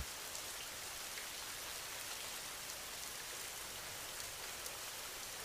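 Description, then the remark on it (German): Steady rain falls continuously, a soft even hiss with faint scattered drop ticks, fairly quiet and unchanging throughout, with no voices. “Lausche dem Regen, während du immer tiefer in einen erholsamen Schlaf gleitest.”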